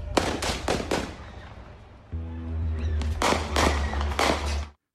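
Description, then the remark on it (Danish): Gunshots crack out in a rapid burst of four or five sharp bangs, then a second volley follows a few seconds later over a steady low engine-like drone; shots fired shortly before midnight at a parking lot in front of an auto repair shop. “Der bliver affyret skud.”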